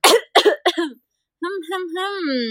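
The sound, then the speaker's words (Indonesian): Three harsh coughs in quick succession, followed after a short pause by a person's drawn-out voice. “lama batuknya lama batuknya”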